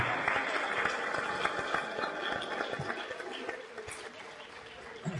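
An audience applauds the first and third participants who win a subscription, with a dense, steady patter of many hands clapping that holds for about five seconds before easing off slightly, with faint murmuring voices mixed in.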